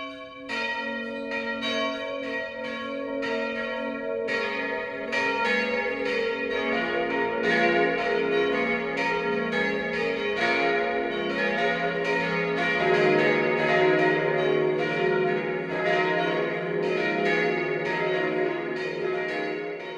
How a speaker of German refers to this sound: Das Mittagsläuten kommt heute von der Pfarrkirche Maria Immaculata im oberbayerischen Walda. Walda liegt am äußersten Rand des Landkreises Neuburg-Schrobenhausen, direkt an der Grenze zu Schwaben und ist seit 1978 ein Ortsteil der Gemeinde Ehekirchen